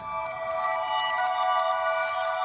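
A pre-recorded sample played through a Morphagene module, reversed and with a delay effect: a sustained, shimmering electronic tone with steady bright overtones and faint echoing flickers, played alone at moderate volume without any talking.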